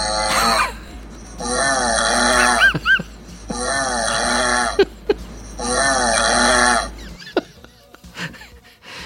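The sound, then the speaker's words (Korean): A played-back recording of a husband's loud, rasping snoring in three long, sustained bursts with a harsh, buzzing metallic tone, separated by short pauses, with brief laughter slipping in between. “그래서 내가 남편 코 고는 소리 녹음해서 틀어줬어.”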